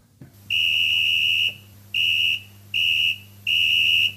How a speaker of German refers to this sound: Abpfiff.